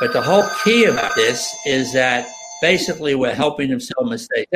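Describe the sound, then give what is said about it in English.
A telephone rings steadily with a high, sustained electronic tone during a live-streamed call while a man keeps talking over it, the ringing fading out partway through. “every time we're on this call the phone rings it's hilarious”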